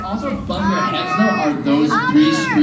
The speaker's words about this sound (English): It's 3 p.m. and it's feeding time for the sea otters here at the Monterey Bay Aquarium. As you can hear, the crowd is super excited to see these cute, bear looking creatures